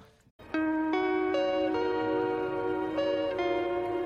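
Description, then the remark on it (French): A slow electric guitar melody rings out alone, each sustained note blending into the next through a wash of reverb, steady and moderately loud after a brief quiet start. “Et donc en fond on entend une guitare euh, électrique avec un peu de reverb qui joue cette mélodie encore.”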